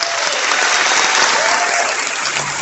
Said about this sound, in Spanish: Muchas gracias, Creo que todos tenemos un aplauso por estar aquí esta mañana.